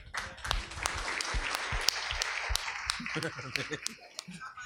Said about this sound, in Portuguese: Pode aplaudir os homens.